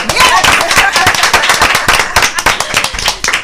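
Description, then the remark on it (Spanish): Steady applause from a crowd, with dense, sharp claps packed closely together, loud and continuous for the whole stretch, without a pause or a voice breaking through. “pero sin aplauso aquí no podemos ni hablar.”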